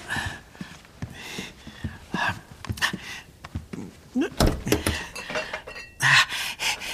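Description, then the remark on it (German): Pots and cutlery clatter and clink in a kitchen, a busy run of sharp metallic knocks and rattles, with a louder crash of tumbling metal near the end and hushed voices in between. “Okay, aber pass auf, dass du keine Töpfe oder sowas umwirfst und das ganze Haus wächst.”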